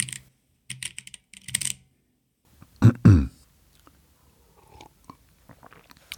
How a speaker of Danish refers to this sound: at fingrene skal bevæge sig lidt, og man kan mærke, når man har skrevet bogstav eller hakket på mellemrumstasten, når den sådan går i bund og siger en lyd, at ja, nu arbejder jeg, nu skriver jeg. Det er fantastisk.